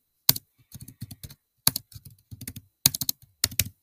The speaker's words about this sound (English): Are you good at typing? Yeah, I'm good at typing. You've missed 10 keys.